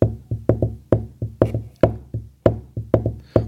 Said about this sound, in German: Der macht ganz viel mit äh, mit Loops. Also der, der äh, klopft meinetwegen einen Rhythmus auf den Tisch.